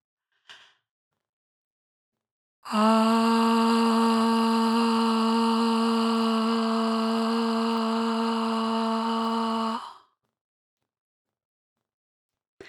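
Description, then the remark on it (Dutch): A single voice chants a long, steady 'ah' vowel, the A sound of Om, at one low pitch for about seven seconds, fairly loud, with silence on either side. The sound starts in the belly and vibrates in the upper chest, with the tongue low, the throat relaxed and open, and the lips open. “Het geluid begint in de buik, trilt in het bovenste gedeelte van de borst.”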